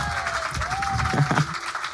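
An audience applauds steadily for two seconds, a dense wash of many hands clapping at once, with a few whistles and faint cheers rising above it.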